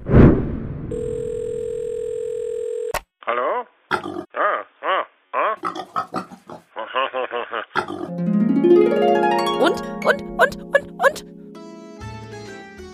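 A telephone tone hums steadily for about three seconds as a call is placed to a guest from the Museum für Naturkunde, then gives way to a series of short, wavering squeal-like bursts and a rising musical jingle.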